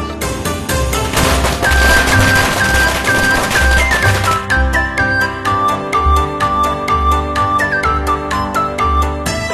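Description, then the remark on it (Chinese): Firecrackers crackle in rapid, dense bursts of sharp pops, loud and continuous, mixed with bright instrumental music that carries a melody over a steady, thumping beat. “松鼠宝宝泼花生，放起爆竹噼啪响。”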